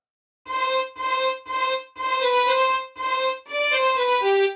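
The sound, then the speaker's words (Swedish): A solo violin plays a short phrase of about six bowed notes, clear, with brief gaps between the first few and the last notes stepping downward. “Och sen toppar vi mackan med eh, sista brödskivan, mm. fiolen.”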